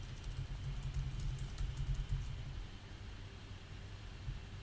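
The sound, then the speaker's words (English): Soft, rapid clicks of typing on a computer keyboard as tweets are sent during the G1 Climax 30 block announcements, quiet, bunched in the first couple of seconds over a low steady rumble, then fading to background hum. “Right, if you hear typing, that's me firing off the, the tweets.”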